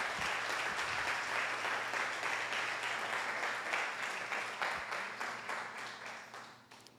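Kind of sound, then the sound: crowd, audience applauding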